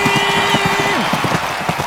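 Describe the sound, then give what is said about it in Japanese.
A racehorse gallops toward the finish in a race called the Toho Cup, its jockey leaning forward, in a radio advert for Toho Gakuen vocational school's broadcasting and sound course: fast, steady thudding hoofbeats repeating several times a second over a constant hum and a dense background wash. “ジョッキーは身を乗り出し足音を収録しているとてもクリアな音質安定している聞こえてくるのは勝利の足音ゴールイン”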